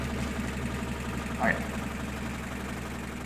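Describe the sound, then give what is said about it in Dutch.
A classic bakery bread slicing machine in a bakery shop runs with a steady mechanical hum and rattle, its drone unchanging throughout except for a brief rising squeak about halfway through. “Dat vind ik dat is een van de eerste geluiden, denk ik, waar je denkt als je aan een bakkerswinkel denkt, is die, dat, die broodsnijmachine. Kijk, en dit is dan de, de, de klassieke machine, zoals je hem kent.”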